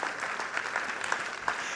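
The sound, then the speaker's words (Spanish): A church audience applauding in praise of God, a dense, steady patter of many hands clapping with sharper individual claps popping out here and there, moderately loud throughout and no talking over it. “Denle un aplauso al Rey de Reyes y Señor de Señores.”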